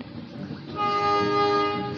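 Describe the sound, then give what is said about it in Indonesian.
A train rumbles by, and partway through its horn blares a sustained, steady chord over the rolling noise of the cars. No one speaks. “Ada suara kereta, maaf.”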